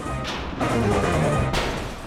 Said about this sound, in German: Man könnte auch sagen, es werden allerhand Register aus der Mischpultkiste gezogen. Donner und Blitz rauschen mit Ballereffekten und viel Bumm vom Himmel.